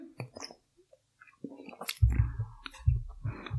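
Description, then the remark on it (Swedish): Slurping and swallowing as someone takes a sip of Rapskate IPA beer, with soft wet mouth clicks and gulps in quick succession and no one speaking. “Vi kan börja med att ta en klunk av Rapskate IPA.”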